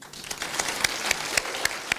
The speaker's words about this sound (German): Applaus für den Kulturreferenten Dr. Andreas Hechter